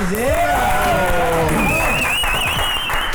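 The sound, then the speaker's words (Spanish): Steady applause from an audience welcoming a guest fills a few seconds, dense clapping mixed with whoops and rising whistle-like cheers, loud and continuous throughout without any speech. “Por favor, fuerte los aplausos para recibirle a Walter”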